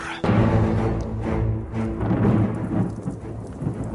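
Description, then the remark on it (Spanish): A loud, steady thunderstorm with huge hailstones pelting down violently and deep rumbling thunder rolling underneath, a dense, continuous roar with no pauses and no voices. “Y esta vez, la tormenta soltaba no nieve, sino enorme granizo que cayó con tal violencia que parecía lanzado por los demonios.”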